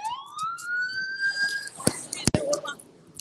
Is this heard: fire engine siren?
yes